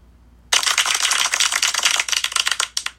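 A burst of applause from a sound effect: dense, crackling claps that start suddenly after a short silence, stay steady and fairly loud for about two and a half seconds, then thin out and stop.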